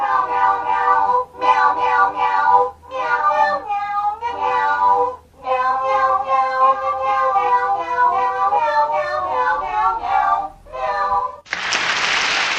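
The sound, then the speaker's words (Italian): A chorus of Chinese kittens' meows strung together into a melodic Christmas tune in rhythmic phrases, with brief pauses between them, ending in a short burst of applause-like noise. “i gattini cantano anche per 20 ore al giorno senza mai fermarsi e alla fine dei conti il miau cinese e il miau italiano non hanno differenze.”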